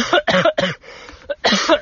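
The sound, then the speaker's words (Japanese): A series of harsh coughs in quick succession, three strong bursts followed by a softer rasp and a final loud cough, with no talking. “ちょ、僕、咳しちゃいましたけども”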